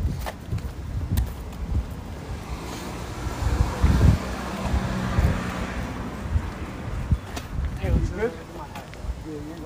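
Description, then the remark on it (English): A car approaches, its engine rumble swelling in the middle over heavy wind buffeting the microphone, with people's voices murmuring throughout. “car's coming, bro.”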